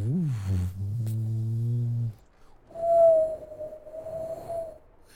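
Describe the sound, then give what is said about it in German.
A voice mimics rising, intensifying wind: first a low, droning hum with a sliding start, then after a brief pause a thin, sustained whistling howl that swells and holds steady, fairly loud. “und du hörst, wie der Wind sich intensiviert. Du hörst so wieder dieses.”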